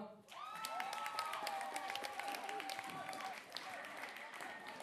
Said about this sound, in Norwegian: Kan vi få opp juryen? Applaus, ja.